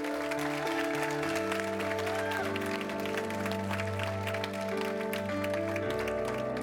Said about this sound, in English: I lost count. I think it's about 15, 16 people, but can you just give Jesus a hand clap?